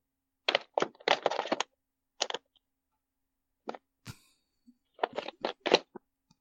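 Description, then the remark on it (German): The sixth cardboard door of a Transformers advent calendar bought at Lidl being torn and pried open, a series of short crisp cracks and rips in clusters, fairly loud, with a brief pause and a small knock midway. “Das sechste Türchen an meinem Transformers Adventskalender.”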